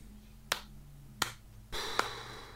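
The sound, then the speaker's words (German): Three sharp, sparse hand claps spaced roughly evenly, each a crisp slap over a low steady hum, with a brighter hiss rising under the final clap. No one speaks. “Ich habe gerade einen kleinen Applaus angestimmt.”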